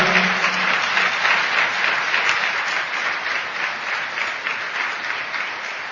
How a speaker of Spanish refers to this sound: Así que ustedes son unos privilegiados, somos unos privilegiados de estar acá. Vamos a daros un fuerte aplauso por estar acá por hacer parte de la historia.